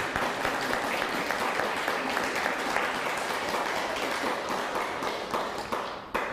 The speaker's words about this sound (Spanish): desde Morelia, un fuerte aplauso a Morelia, por favor.